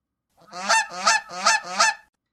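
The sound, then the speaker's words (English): A goose honks in distress as a pill is forced into its mouth, four loud, harsh calls in a quick, steady rhythm, with no talking. “a goose began making loud, distressed noises as Cassie attempted to force a pill into its mouth”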